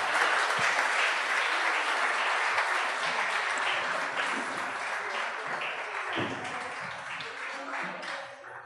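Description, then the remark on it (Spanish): Sustained audience applause, a dense wash of many hands clapping at steady loudness for several seconds before tapering slightly at the end, with no speech over it. “Un aplauso, por favor.”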